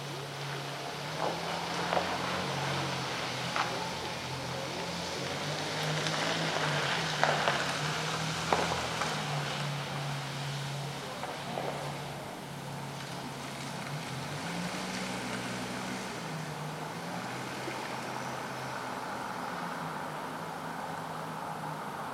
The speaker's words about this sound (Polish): W zasadzie nie wiadomo, dokąd ten samochód odjechał. Na początku. Tutaj słychać, że on wyjeżdża praktycznie z prawej strony. Przejeżdża wjeżdża za murek. I od tego momentu nie wiadomo, co się dzieje z nim. Czy on pojechał w prawo, w lewo?